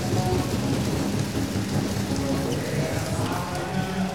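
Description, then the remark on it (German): A large handball arena crowd applauds steadily as player Malte, adjusting his headband, stands up again during a seven-meter penalty situation, a dense, continuous wash of clapping that stays loud and even for the full few seconds, with a faint murmur of voices underneath. “Malte richtet sein Haarband kriegt den Applaus, steht wieder.”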